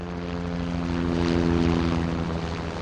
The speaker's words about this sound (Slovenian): Naenkrat je krike in usklike preglasil zvok bližajočega se helikopterja.